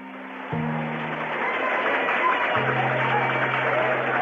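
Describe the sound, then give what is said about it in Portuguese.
A crowd applauds steadily for several seconds, a dense, continuous clatter of many hands clapping, with a low sustained hum underneath and no voices standing out. “Aplausos da plateia, hein?”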